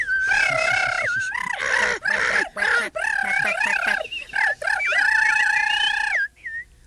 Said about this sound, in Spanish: Cuando los pájaros se enteraron de esto, armaron una tremenda algarabía.